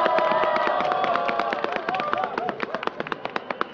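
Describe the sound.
An audience applauds a guest's entrance, with a steady, dense patter of clapping and voices under it at first, thinning to scattered individual claps by the end.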